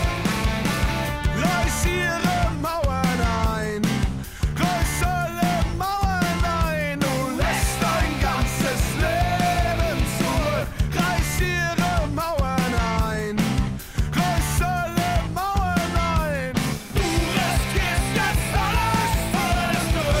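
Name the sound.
band's song playing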